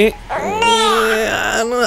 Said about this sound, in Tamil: குழந்தைங்க இப்படி அழுதா அதுக்கான காரணம் பசி